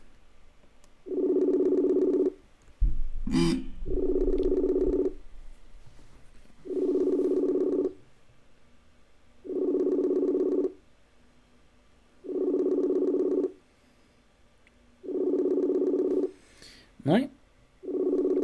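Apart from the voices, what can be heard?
phone call ringing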